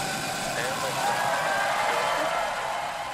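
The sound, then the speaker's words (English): Rocket engines roar at ignition after a launch countdown, at full power: a deep, continuous roar, loud and steady with a broad rushing texture that holds unbroken for a few seconds. “10, 9, 8, seven, six, five, four, three, two, one. Ignition. Engines full power.”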